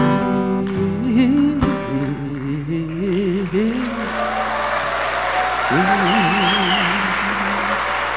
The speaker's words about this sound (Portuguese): Bacana, muito bacana. Eu queria terminar só com as palmas, né?